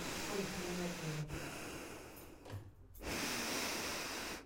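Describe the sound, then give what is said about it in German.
Heavy snorting breaths through a face mask, loud and rough, in long noisy pushes broken by a brief pause, with a faint low voice-like murmur underneath. “Ich so schnaube mit dieser Maske.”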